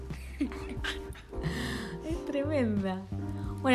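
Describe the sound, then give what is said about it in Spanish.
A small poodle-type dog pants in quick, breathy bursts, partly buried under people talking over it. “que ahí la escuchamos jadear.”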